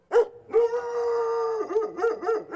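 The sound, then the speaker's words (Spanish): A huge white-furred dog named Capitán, from a legend set in Matanzas around 1770, howls: a brief yelp, then a long, steady, drawn-out howl that breaks into several shorter wavering cries, with no voices. “Cuentan que a comienzos del año 1770 vivía en Matanzas doña Ramoncita Oramas, viuda de Solís, quien tenía un fiel compañero para su soledad, un enorme perro de blanco pelaje llamado Capitán.”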